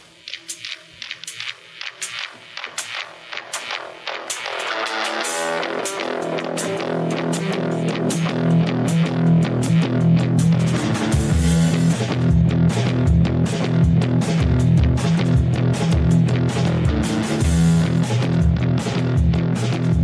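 A newly released rock song plays loudly, opening with a sparse, choppy guitar intro before the full band kicks in with heavy bass, driving drums and distorted guitars that keep a steady, dense groove.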